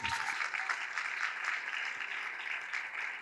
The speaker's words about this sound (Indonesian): Silakan duduk letakkan Alkitab saudara dan berikanlah tepuk tangan yang meriah bagi Tuhan Yesus